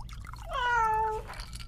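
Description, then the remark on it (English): A single drawn-out cat meow, clear, rising and then falling over about half a second, with faint background noise and no talking. “Even the cat's more useful tonight.”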